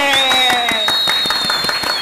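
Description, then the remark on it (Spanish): A crowd applauding loudly after President Luis Abinader is announced as winner of the 'pique del año' award category, with sharp claps landing in a fairly steady rhythm over dense clapping noise, along with sustained high whistling and vocal tones from cheering. “¡Aplausos!”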